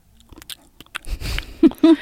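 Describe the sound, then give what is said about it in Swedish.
A voice imitates chewing: a quick run of wet smacking clicks and mouth noises, then two short voiced grunts at the end. “tuggljud. Jag hatar när folk tuggar tuggummi.”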